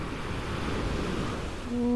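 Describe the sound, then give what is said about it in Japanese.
Steady surf rolls and washes onto the shore of a fairly well-known beach below a steep coastal drop in Japan, a continuous broad roar of breaking waves with some wind buffeting, and a faint tonal hum rising near the end. “波の音をお届けします”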